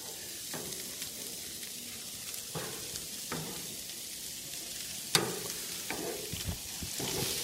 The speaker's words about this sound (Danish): Så kommer bøfferne på. Ej, ja, man kan høre den der øh, sydelyd.